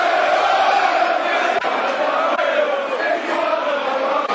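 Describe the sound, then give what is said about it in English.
A large football stadium crowd roars and cheers continuously after a wild tackle draws a yellow card, a dense, loud wash of voices that holds steady for several seconds with a few sharper bursts of shouting rising through it. “crowd loved that.”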